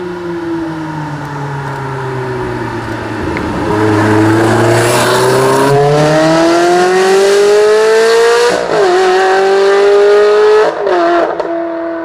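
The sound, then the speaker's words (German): A car engine accelerates hard on a country road through several gear changes, its pitch climbing each time, and the exhaust turns noticeably louder and rougher partway through as the exhaust flaps open, heard alone. “Also man, man hört wirklich diesen Moment, wo die Klappen aufgehen. Das ist ein Unterschied wie Tag und Nacht im Klangbild.”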